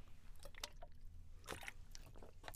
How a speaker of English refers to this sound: Excuse me. Let me take a sip of my water.